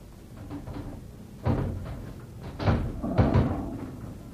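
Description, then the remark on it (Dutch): Wooden clunks and scrapes as a box lid is worked open, with a sharp knock near the middle and two heavier thuds toward the end over a low rumbling background. “Ja, het deksel is los. Nou, maak maar open.”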